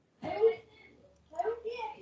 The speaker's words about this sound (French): Ah, vous entendez ça un peu. Ah, mais c'est pas grave, c'est pas quand même. Moi, j'ai mon chien qui pleure, donc. Ah, c'est correct, il vit des émotions.